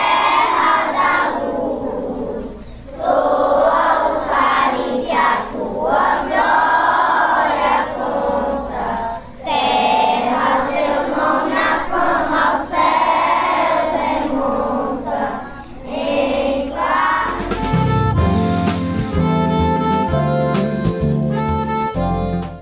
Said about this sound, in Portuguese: Então agora vamos cantar o hino do estado do Ceará.